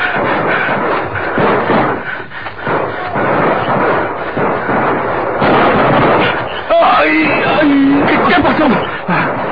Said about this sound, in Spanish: Son los soldados del capitán Salazar. Son los soldados. ¿No ves cómo tiran?